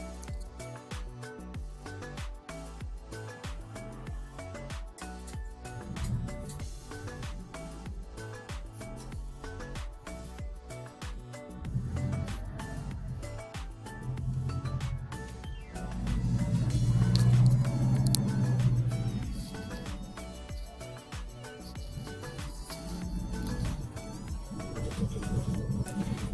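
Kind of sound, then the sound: vehicle, bus ride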